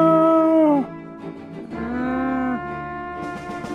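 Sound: loud animal roar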